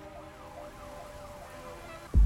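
An ambulance siren wails with rising and falling sweeps over steady traffic rumble, ending in a sudden loud thump.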